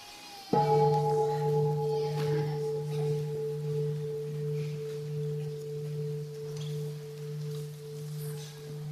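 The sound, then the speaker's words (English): A single deep bell is struck once and rings on with a long, steady, humming resonance that slowly fades over several seconds, with no voices present. “Listen to the bell.”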